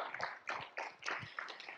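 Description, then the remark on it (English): A church audience claps together in a steady rhythm, the sharp bursts of many hands blending into rough, even beats, fairly soft overall with no voices over it. “And we can clap. We are a clapping church.”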